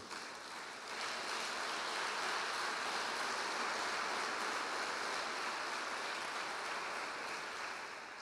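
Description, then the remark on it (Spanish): A church audience breaks into sustained applause for the Lord during a sermon, a dense, steady crackle of many hands clapping that swells after the first second and holds evenly, with no voices heard over it. “Señores, den un aplauso al Señor entonces.”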